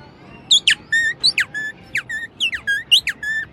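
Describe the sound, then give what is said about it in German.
Someone imitates a tit's call with a quick run of high, squeaky chirps, about a dozen short notes in an uneven rhythm, fairly loud with no talking. “Eine Meise.”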